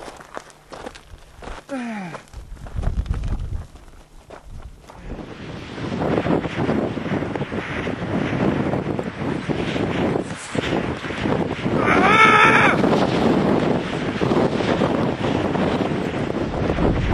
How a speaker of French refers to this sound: On passe notre temps à monter face à un vent complètement démentiel.